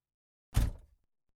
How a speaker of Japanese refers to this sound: ドアが開けられ、ユーリが車に乗り込んだ。